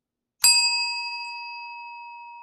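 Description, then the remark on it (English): A single bright bicycle bell ring, struck once sharply and left to ring out with a clear metallic tone that slowly fades. Fairly loud, with no voices or other sounds. “That bell means I accept.”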